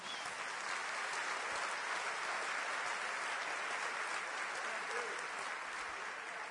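An audience applauds the name of Jesus steadily for several seconds, a dense, even wash of many hands clapping at a constant loudness with no distinct individual claps standing out.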